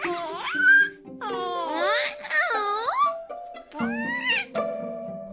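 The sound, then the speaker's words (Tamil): An infant of four to six months makes a string of high, sliding vocal sounds to draw attention, whiny cries mixed with squealing babble, in several bursts of varying pitch with brief pauses between them. “அதனால நாலுலேருந்து ஆறு மாதம் வரைக்கும் டிஃப்ரெண்ட் டிஃப்ரெண்ட்டாக சவுண்ட் போட்டு நம்மளோட அட்டென்ஷனை அவங்க பக்கம் எடுத்துக்கிறாங்க”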